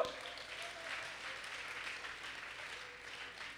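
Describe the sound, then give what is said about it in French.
An audience applauds, many hands clapping in a dense, steady wash of sound that holds at an even loudness for several seconds with no clear break. “Côté mesdames yo, dans assistance nous pas applaudir monsieur”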